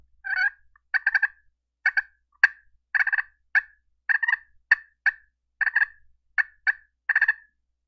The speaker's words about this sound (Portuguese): Quando ela, a fêmea ou o peru, tá tipo assim, em bando e tá tranquilo, tá ali comendo e brincando, eles fazem assim, ó.